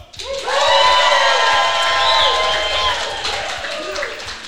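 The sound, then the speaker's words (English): A live crowd at the Ohio ACTE Conference in Columbus, Ohio bursts into loud applause mixed with whoops and cheers, sustained for several seconds at steady volume before tapering slightly, with dense clapping and shouting voices throughout. “that was that was actually not my fake applause thing like I usually have.”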